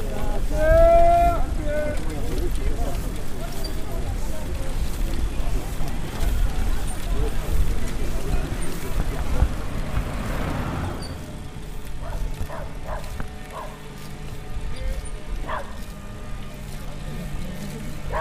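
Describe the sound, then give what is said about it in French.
A car approaches and passes cyclists riding in a convoy to the COP, its engine noise swelling and then fading, with heavy wind buffeting the microphone and faint voices in the background. “Voiture”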